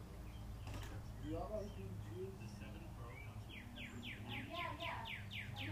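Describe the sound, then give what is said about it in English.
Birds chirp outdoors, with scattered calls early on and then a quick, evenly spaced series of bright chirps near the end, all over a low, steady background rumble. “Just listen to the birds chirping, you know, like.”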